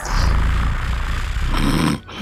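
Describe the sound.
An imitated cat purr from a connected device placed under a pillow, emitting low-frequency sounds called binaural beats: a steady, low rumbling drone with a fluttery texture that runs for about two seconds before abruptly cutting off.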